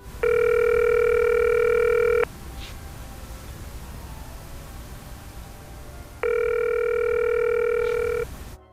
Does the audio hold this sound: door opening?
no